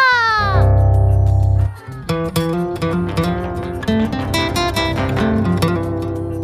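A short piano jingle rings out, a quick run of bright, clear notes in a chime-like phrase. A brief sustained tone comes first. The notes are close and moderately loud, with no talking.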